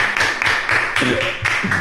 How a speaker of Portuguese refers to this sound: aplauso pro Teatro do Parque. Aplauso pro Teatro do Parque.